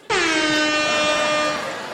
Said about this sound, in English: Air horn.